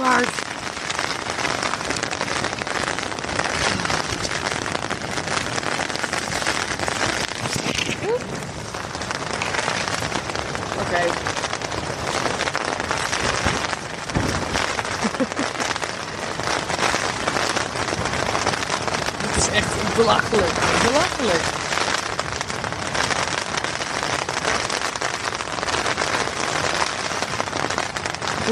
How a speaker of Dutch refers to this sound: Het stort zo